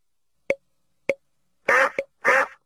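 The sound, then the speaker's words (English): Two soft, short plops are followed by three quick nasal duck quacks, a long one, a brief one and another long one, fairly loud with no talking. “D is for duck.”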